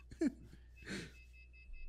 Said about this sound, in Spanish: Oí, oí el sonidito del teléfono de. No mames. Oílo. Güey, todavía existen los teléfonos de casa, la verga.